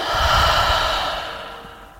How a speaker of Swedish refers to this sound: Andas in djupt. Andas ut genom munnen.